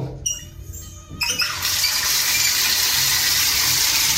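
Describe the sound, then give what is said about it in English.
A bathtub tap squeaks briefly as it opens, then water gushes out in a steady, loud rush that continues without a break, before the shower is turned on. No one speaks. “I have the water running, and then I turn it to shower mode.”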